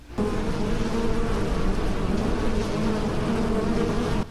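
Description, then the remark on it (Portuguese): A dense, steady buzzing of many bees from a hive inside a fallen tree trunk that was struck with an axe while wood was being cut fills the air, a continuous droning hum that stays loud for several seconds before cutting off abruptly. “E o cara ele deu uma machadada na, no tronco, e dentro desse tronco tinha um. Como é que é o nome? Tinha uma colmeia de abelha, tá ligado?”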